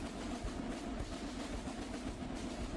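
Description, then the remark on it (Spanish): A steady, deep rumble of thunder from a thunderstorm rolls on without pause, with faint thumping low pulses within it like drums, moderately loud and with no voices. “¿Escucháis los truenos? Suenan. Suenan como si esta mismísima tormenta tuviera sus propios tambores.”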